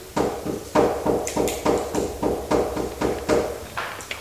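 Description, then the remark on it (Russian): A steady run of about ten sharp, evenly spaced knocks imitates the knocking that miners in Donetsk say often begins before a mine collapse, with no talking over it. “Шахтеры рассказывают в Донецке, что очень часто перед обвалом начинается стук такой.”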